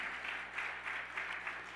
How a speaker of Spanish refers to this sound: Vamos, iglesia, dele otro aplauso fuerte.